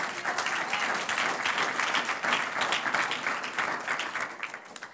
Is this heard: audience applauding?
yes